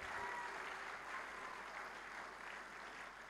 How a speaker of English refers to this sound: Come on, give the Lord a clap. Let's give him a clap. Let's give him a clap.